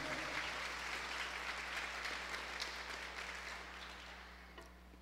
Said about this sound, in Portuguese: Eu queria pedir uma salva de palmas pela vida deles. Em nome de Jesus.